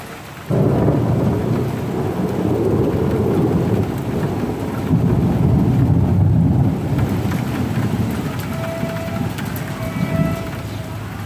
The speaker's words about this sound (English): thunder in Lyon.